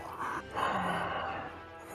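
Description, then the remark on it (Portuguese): A person imitates Darth Vader's heavy mechanical respirator breathing: a short hissing inhale followed by a longer, raspy exhale, fairly loud, with no talking. “Aí eu dou repetindo aí a respiração do Darth Vader.”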